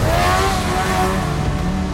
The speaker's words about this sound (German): Du ziehst deinen Helm auf. Du steigst ins Auto. Und du machst das, was du am besten kannst. Du gibst Gas.